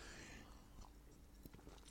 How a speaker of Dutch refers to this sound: Even een slokje water, sorry.